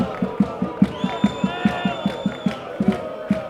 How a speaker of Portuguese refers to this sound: Na bancada, os adeptos cantam, gritam e desesperam.